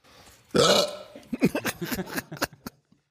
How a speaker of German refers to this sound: Es begann vor etwa drei bis vier Jahren, mhm. dass ich auf einmal einen Schluckauf entwickelt habe. Äh, es ist sehr mysteriös, ich weiß nicht warum, ich habe das jeden Tag.